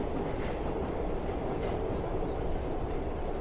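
A metro train rolls along the rails with a steady, loud rumble and faint rattling, continuous throughout with no voices.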